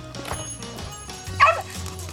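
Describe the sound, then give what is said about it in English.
A small dog, a female puppy, lets out a single sharp, high-pitched yip near the middle, over a low background hum with faint room noise around it. “Oh, sorry, actually, can you hold the pup for a second?”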